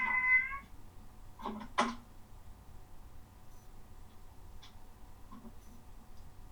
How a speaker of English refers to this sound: And we've got a um, Thursday session at at my cat is meowing.